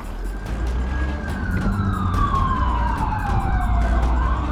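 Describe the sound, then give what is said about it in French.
A police patrol car's siren wails as it races off from where it was parked at the exit of Denton, chasing a Ford that passed at over 80, its tone sliding steadily downward over a heavy rumble of engine and road noise. “Les patrouilleurs démarrent en trombe.”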